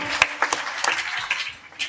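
audience applauding

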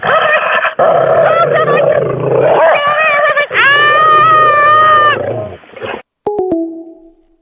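dog barking and growling

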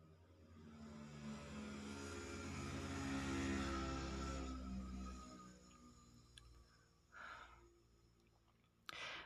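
motorcycle passing by

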